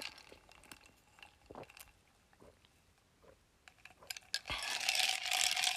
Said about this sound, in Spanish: Espera, déjame le doy otro trago a mi café, me está haciendo ojitos.